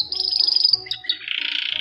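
A canary chirps and trills rapidly in a continuous high-pitched stream, fairly loud, with no voices present.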